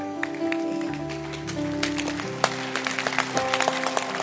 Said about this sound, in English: If you love the Lord, oh clap. I I I am enjoying your hand clap.